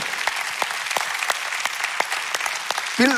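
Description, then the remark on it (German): A church audience applauds God steadily, a dense wash of many hands clapping with a few sharper individual claps standing out, ending as a voice begins to speak. “Lass uns diesem Kettensprengen Gott einen Applaus geben.”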